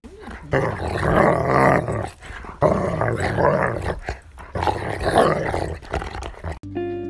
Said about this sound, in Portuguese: Parecia um cachorro e no ato do ataque ele agarrou a barra da saia